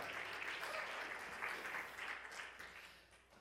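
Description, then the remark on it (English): A church audience applauds the children steadily, a dense wash of many hands clapping at once that holds for a few seconds and begins to thin out toward the end, with no voices standing out. “Yeah, come on, put you put your hands together.”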